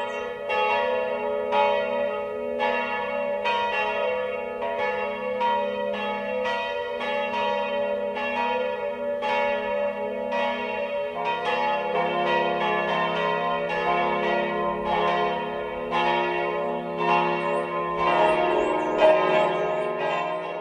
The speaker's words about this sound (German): Es ist 12 Uhr. Das Mittagsläuten kommt heute von der katholischen Pfarrkirche St. Bartholomäus in Oberbergkirchen.